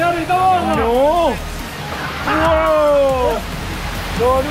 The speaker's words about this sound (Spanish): Está muy bien este, este estos rápidos, ¿eh? No, no son como los de Wally Belgium, ¿eh? Está tranquilo, está bien.